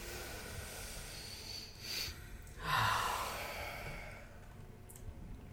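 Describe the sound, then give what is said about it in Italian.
A slow, deep breath drawn in with eyes closed, followed by a longer, airy exhale, with no talking and only faint background hiss around it. “Chiudi gli occhi, fai un bel respiro.”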